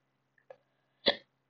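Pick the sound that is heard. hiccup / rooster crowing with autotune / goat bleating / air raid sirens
hiccup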